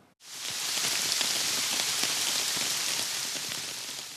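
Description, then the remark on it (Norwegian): Steady rain falls, a dense, hissing wash with scattered drops pattering on a hard surface. It begins abruptly and stays even and loud throughout, with no voices. “Mye regn og mildvær så langt i vinter gjør at strømprisene er lave”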